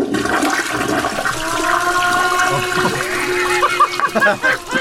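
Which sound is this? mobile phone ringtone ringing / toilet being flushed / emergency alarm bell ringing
toilet being flushed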